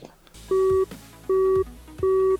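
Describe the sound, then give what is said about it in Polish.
Three identical steady electronic beeps, evenly spaced at a regular rhythm, each a short flat tone with a higher overtone, the repeating pattern of a telephone signalling that a call has ended. “Połączenie zakończone.”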